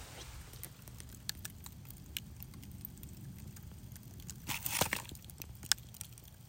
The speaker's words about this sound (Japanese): それでは、最後にちょっとえー、せっかくだから焚き火のパチパチという音で、えー、最後お別れしようと思います。入るかな収録できるかな